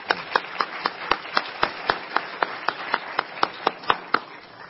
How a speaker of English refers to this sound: Yeah, amen. You can clap.